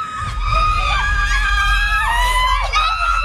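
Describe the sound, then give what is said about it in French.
Women scream and cheer together in a loud, continuous burst of high-pitched voices, with overlapping shrieks rising and falling for a few seconds over a low rumble. “Ah, ça crie”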